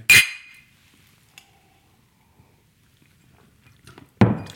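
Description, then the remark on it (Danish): Glasses clink together once in a toast, a bright chime with a short ringing tail. Quiet follows, broken near the end by a louder, duller knock. “Øhm, Skål. Skål.”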